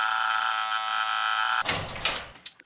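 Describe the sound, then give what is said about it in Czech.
A steady electric buzz hums for over a second, then a code lock unlocks with a sharp click after the code 1, 2, 3, 4 is tapped in, followed by the rattling swish of a gate swinging open and a couple of clunks at the end. No voices. “Lup! Zámek se odemkl a brána se otevřela.”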